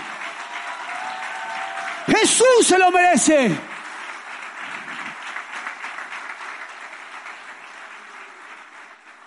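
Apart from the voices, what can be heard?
audience applause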